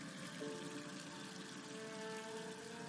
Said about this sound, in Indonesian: Tiba-tiba, aku mendengar ada suara air keran mengucur. Suara keras di Westafel.